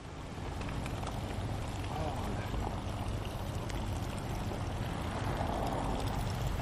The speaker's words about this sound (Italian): Vedi una delle cose belle di Roma, che non manca l'acqua, ci sono le fontanelle a ogni angolo.